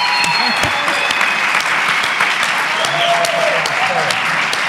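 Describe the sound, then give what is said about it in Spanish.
A crowd breaks into sustained applause as the speaker stands to applaud the audience for coming, a dense, steady wash of many hands clapping at full volume for several seconds, with faint voices mixed underneath. “Mira, un aplauso.”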